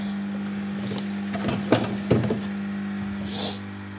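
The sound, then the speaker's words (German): A coffee machine frothing milk gives off a steady low electric hum, broken by two sharp clattering knocks midway and a soft hissing burst near the end. No one speaks. “So, Milch aufschäumen.”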